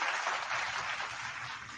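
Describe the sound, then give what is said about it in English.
A short burst of crowd applause, a dense, steady wash of many hands clapping at moderate volume for a couple of seconds with no voices. “The faithful, uh, hats off, a round of applause for the year that we've had.”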